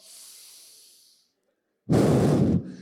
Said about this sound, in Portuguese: Pelo amor de Deus, inspira e expira, pelo amor. E solta. Faz isso, por favor, ó.